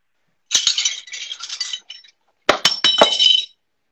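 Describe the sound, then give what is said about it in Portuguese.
Metallic clinking and jingling as a hanging marathon medal is lifted down from where it hangs, two bursts of bright, high chiming with sharp ticks at the start of each, with no voices. “A minha tá ali. Deixa eu pegar ela. Pendurada.”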